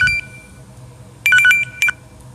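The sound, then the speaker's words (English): A phone rings with a quick cluster of bright electronic tone bursts, moderately loud, followed by a short final beep, against a quiet background with no talking. “Sorry, I had a phone call.”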